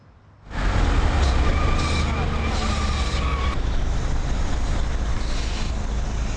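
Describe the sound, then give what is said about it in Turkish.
Steady engine rumble and road noise fill the inside of a crowded moving minibus used as public transport, starting abruptly and staying loud throughout, with an indistinct murmur of passengers' voices mixed underneath. “bindiğiniz minibüs bayağı bir yoğundu.”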